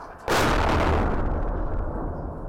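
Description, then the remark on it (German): A single loud, booming blast of gunfire or an explosion erupts suddenly during heavy fighting in Khartoum, Sudan, then rolls on as a long, rumbling decay with no voices present. “Immer wieder sind da Explosionen oder Schüsse zu hören und Rauchwolken steigen auf.”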